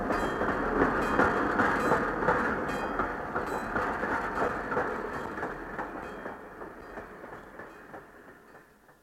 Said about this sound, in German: Alles auf dem Bahnhof schwenkte die Mützen, als der Zug aus der Bahnhofshalle fuhr und mitten in die Weihnachtsferien hineinschnaufte.